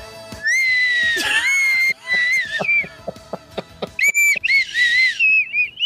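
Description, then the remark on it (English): A shrill slide whistle blares loud, pushed to its limits, squealing at a very high pitch and wobbling up and down in long sliding bursts, broken by a short pause filled with quick tapping clicks. “You just push that slide whistle to its yeah. limits.”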